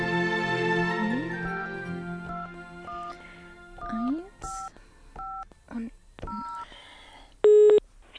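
A telephone number looked up in a phone book is hastily dialed as a quick series of short touch-tone beeps, followed by a single loud ringing tone at the end; a faint murmur of other sound lies underneath.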